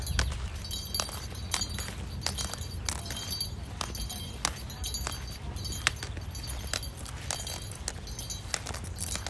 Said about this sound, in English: And this tapping slash noise is my cane. My cane helps me identify like what's in front of me if I hit something, etc.